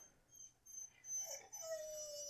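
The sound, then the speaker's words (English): A dog lying down gives a sudden, odd bark that stretches into a thin, high whine, a single vocal outburst heard alone and fairly faint, with no talking over it. “You're just laying there and you bark like a weirdo.”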